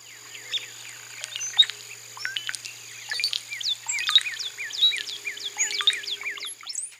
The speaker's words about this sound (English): Listen for the liquid gurgle of the cowbird.